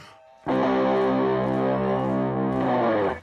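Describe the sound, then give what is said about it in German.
A loud, distorted electric guitar chord rings out through an amplifier, sustaining thickly for nearly three seconds before a second strum near the end, with no one talking. “Ähm, äh, also, äh, so klingt die E-Gitarre ohne E, äh, also, also ohne Strom. Äh. Jetzt aber mit dem E, den elektrischen Schwingungen.”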